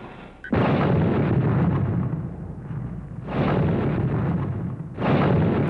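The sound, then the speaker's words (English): Three loud, deep explosions go off one after another, each a sudden roaring blast that rumbles on for a couple of seconds before the next hits, with no voices: explosions ripping through the Los Angeles Times building in Los Angeles early in the morning of October 1, 1910. “Early in the morning on October 1st, 1910, explosions rip through the Los Angeles Times building.”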